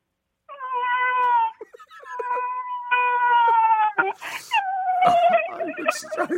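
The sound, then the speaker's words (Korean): A person imitates a crying baby with a run of loud, wavering wails, each held for a second or so and broken by short gasping breaths. “아기 울음소리 애기, 마지막. 애기 볼게요.”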